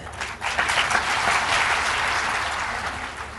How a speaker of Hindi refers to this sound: तालियां तो बजाते हो बात अच्छी लगी इसका तो धन्यवाद